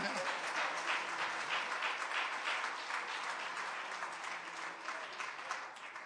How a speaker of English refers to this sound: Oh, somebody clap your hands and praise Him right